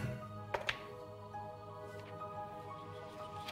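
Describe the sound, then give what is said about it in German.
Two quick, light clatters land close together near the start, like dice tumbling briefly on a table, rolled for a history check, followed by a low steady hum with no speech. “Würfel mal auf äh, Geschichte.”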